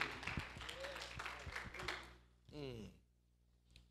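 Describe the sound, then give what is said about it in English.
A seated church audience claps their hands in praise to the Lord in a dense, steady burst for about two seconds, fading out before a single voice speaks briefly near the end. “Give the Lord a hand clap of praise while you're seated.”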